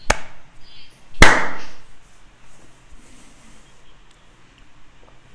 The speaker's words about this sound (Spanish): A ver, a las tres aplaudimos. Una, dos, tres.